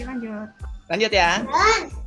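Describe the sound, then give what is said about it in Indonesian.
A brief adult remark is followed by young children's high-pitched voices, chattering and calling out in quick bursts, fairly loud for about a second. “ya itu tadi suara suara anak kecil kedengeran.”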